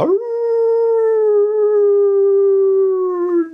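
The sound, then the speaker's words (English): A single long, steady wolf-like howl holds one sustained pitch for over three seconds, loud, with a slight rise at the start and a dip at the end. A person imitates a wolf, demonstrating the howl they teach people to do. “Well, I teach these people how to howl. We do this.”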